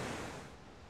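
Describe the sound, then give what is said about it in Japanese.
A continuous, dense roar of Sogi Falls (Sogi no Taki) in Japan, a steady wash of rushing water with no breaks or distinct events, filling the whole moment without any voices. “曽木の滝できましたけどいや迫力ほんとすごかったな”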